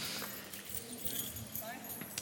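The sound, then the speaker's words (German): Several bunches of keys jangle and clink at once as people pull out their key rings, a busy, continuous metallic rattling from many hands, with a low murmur of voices in the background. “Holt mal einen Schlüsselbund raus. Jetzt alle.”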